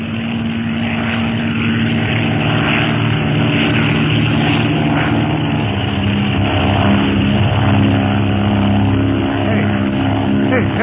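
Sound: propeller airplane flying overhead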